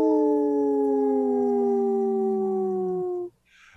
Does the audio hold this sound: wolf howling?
yes